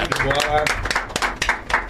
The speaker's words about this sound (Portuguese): Palmas para o melhor volante do Brasil, titular da seleção brasileira em breve, André tá aqui.